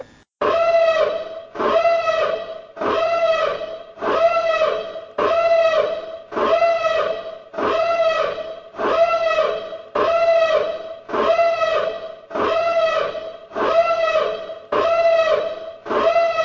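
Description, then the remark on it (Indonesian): A loud, buzzy tone marking where spoilers begin repeats about fifteen times in a steady once-per-second rhythm, each bright, harmonic-rich burst bending slightly in pitch, with no talking over it. “Seperti biasa, spoiler akan muncul setelah nada berikut.”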